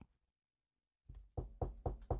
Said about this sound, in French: cogne à la porte. Bonjour, patron.